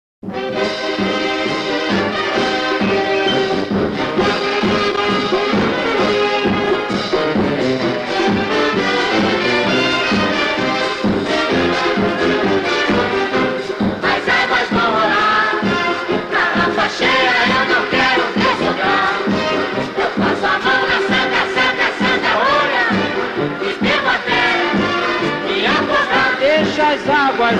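A lively carnival marchinha plays loud and steady, a chorus of voices singing together over bouncy band accompaniment, with a crowd-like energy filling the whole stretch without pause.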